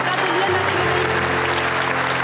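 A TV studio audience claps steadily on Easter for presenter Thomas Helmer's birthday, a dense, continuous wash of applause with no pauses, fairly loud throughout.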